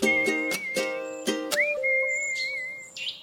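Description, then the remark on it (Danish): Whistled imitation birdsong in a new jingle for the Bilklubben show: sustained, wavering high whistle tones with trills, set over a steady musical backing with rhythmic accents, no talking. “Så synger de falske fugle, for her er en helt ny jingle i Bilklubben.”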